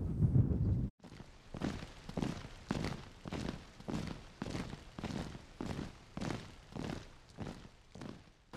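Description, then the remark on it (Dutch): Steady footsteps walk along a street in Berlin toward the Wilhelmstrasse at an even pace, a firm step roughly every half second, after a brief burst of low rumbling noise at the start. No one speaks. “Wij eh, staan op en wij gaan een stukje verder lopen.”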